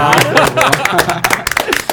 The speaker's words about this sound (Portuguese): Palmas da nossa plateia.